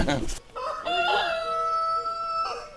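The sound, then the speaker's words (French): A rooster crows once, loud, a long harmonic call held for about two seconds and ending in a drawn-out fall, after a brief burst of noise at the start. “son cheval, son poney, ses coqs, ses chiens.”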